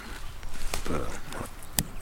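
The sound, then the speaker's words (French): Dry crackling as a fresh arugula leaf is crushed between fingers, a few sharp crisp snaps over a soft rustle, with a voice briefly murmuring in the background. “Voilà, ça c'est une, une feuille qu'on froisse”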